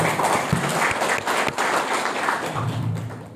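An audience applauds steadily, a dense wash of many hands clapping, holding strong for a few seconds before gradually thinning toward the end.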